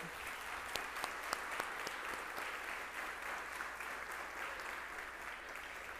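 A crowd claps steadily for several seconds, a dense wash of many hands with a few sharper individual claps standing out, holding an even loudness throughout with no voices.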